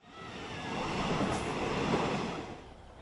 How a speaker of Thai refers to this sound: การเดินทางครั้งนี้ไม่เพียงแต่จะสร้างเสริมประสบการณ์ให้กับเด็กๆ ในการได้เข้าเที่ยวชมสวนสัตว์เท่านั้นแต่ยังช่วยกระตุ้นเศรษฐกิจฐานรากให้กับพ่อค้าแม่ค้า ทั้งบนโบกี้รถไฟขณะเดินทาง และในอำเภอเขาสวนกวาง